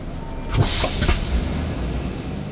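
A bus lets out a sharp, loud hiss of air brakes as a man boards it, starting abruptly and trailing off, with a low engine rumble idling underneath throughout.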